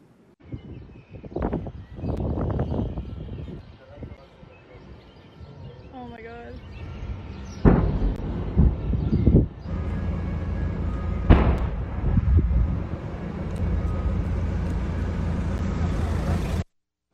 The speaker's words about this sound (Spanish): Estas explosiones alertan en el Aeropuerto Internacional de Ginebra, en Suiza. Eh, se registró una explosión y posterior incendio.